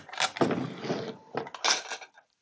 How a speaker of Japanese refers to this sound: どれだこれをつけとけばいいか。今、引き、ネイルの引き出しを開けてトップコートを探してきました。